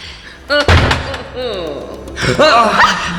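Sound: door slamming shut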